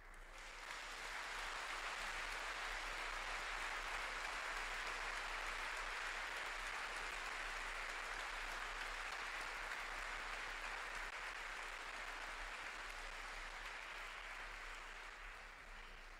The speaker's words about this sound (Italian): Ecco, adesso no, non applaudite più perché non voglio eh, catturare l'applauso